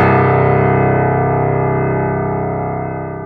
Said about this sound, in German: bevor die Glocke die volle Stunde geschlagen hatte, was sie jetzt mit einem tiefen, dumpfen, hohlen, melancholischen Ton tat.